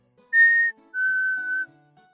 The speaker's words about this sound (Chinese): 结果倒好，这家伙竟然若无其事的面朝天空吹起了口哨。